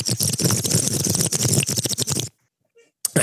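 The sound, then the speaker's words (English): A long, loud slurping sip lasting about two seconds, airy and crackly with rapid wet bubbling, breaking off abruptly into near silence before a short noisy burst at the end. “The traumatic sip.”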